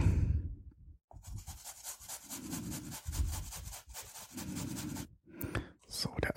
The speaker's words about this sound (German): Dann nehme ich hier mal eine kleine Handreibe.